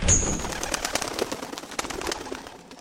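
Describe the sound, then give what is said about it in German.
Pigeons coo and flutter with an echo inside the empty, closed dormitory of a school for prayer leaders and preachers, with a brief high whistle at the start and a steady rustle of wings and soft calls throughout. No one speaks. “Keine Angst, hier drin sind nur Vögel.”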